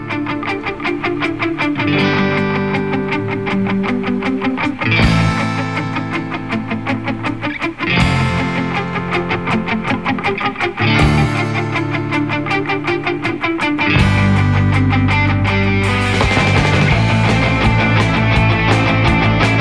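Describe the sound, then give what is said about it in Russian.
A loud rock intro driven by heavily distorted electric guitar, with dense sustained chords that shift to new ones every few seconds over a full, steady band sound, with no singing. “Ну, давайте мы сейчас вступление к этой композиции послушаем.”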